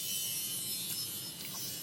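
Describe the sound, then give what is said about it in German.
A steady, continuous electric whir with a harsh high-frequency hiss, like a power sander or grinder running without pause. No one speaks during it. “Und es gibt Schleifarbeiten für Champions. Schleifen, Sägen, Bohren, ich weiß nicht, irgendwas.”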